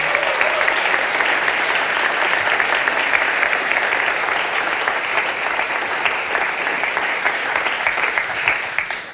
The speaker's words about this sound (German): wir dürfen ihnen auch mal einen Applaus geben, auch für diese Folie.